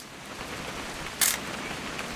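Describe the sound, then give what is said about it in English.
A single sharp camera shutter click snaps once, brief, as a photo is taken, against a steady background hiss like light rain; no one speaks. “Please just take the damn picture.”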